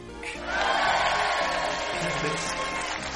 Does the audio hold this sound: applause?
yes